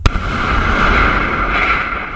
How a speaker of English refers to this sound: That explosion is the sound of demolition of a nearly 100 year old coal plant in North Carolina. It's good news for people living near the Cape Fear coal plant because Duke Energy finally demolished that ancient coal fired power plant